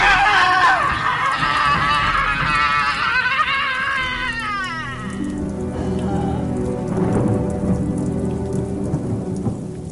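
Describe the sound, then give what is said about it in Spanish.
Heavy rain pours steadily while loud, deep thunder rumbles through, with a woman's brief high scream of pain fading early on, drowned out by the thunder. “La mujer muerta se alzó en un momento de dolorosa agonía, la mira por las llamas, y su amargo alarido de dolor fue ahogado por el trueno.”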